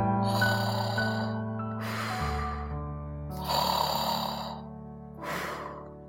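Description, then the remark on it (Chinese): Loud, rumbling snoring of a big mouse asleep in bed, with no talking, several long rasping breaths in a slow rhythm, each swelling into a noisy, breathy rasp before fading. “大老鼠，大老鼠，你在打呼噜！”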